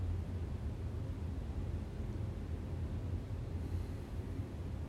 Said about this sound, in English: perhaps noticing the gentle hum of the air conditioning.